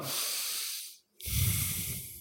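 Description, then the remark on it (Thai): A long, airy breath drawn in through the nose, an in-breath taken as a pair while attending to where the air touches the nostrils, fades into a short pause before a second, fuller and slightly rougher breath follows. No one speaks. “ตอนนี้เรามันแบบพวกมืออาชีพ มืออาชีพแล้วหายใจเข้าเป็นคู่เดียวหายใจเข้า”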